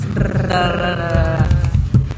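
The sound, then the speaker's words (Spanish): A drum roll imitated by a voice: a steady, loud, rolled buzzing rumble with a growling quality that holds for about two seconds before fading. “Redoble de tambores.”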